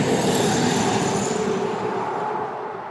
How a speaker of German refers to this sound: Jetzt kam ein Auto.